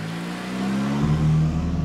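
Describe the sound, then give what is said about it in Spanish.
A car engine idles with a steady low hum, then revs up partway through, its tone rising and growing louder, with no voices. “Me monté al carro, prendí la radio”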